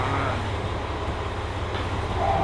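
A train rolls into a station platform with a steady, heavy low rumble throughout and a faint brake squeal near the end; no one speaks.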